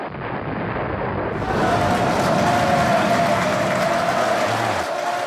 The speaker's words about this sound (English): Listen to that crowd, man.